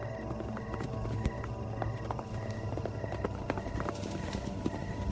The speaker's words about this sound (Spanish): Juan alcanzó a escuchar a la lejanía a un grupo de caballos a todo galope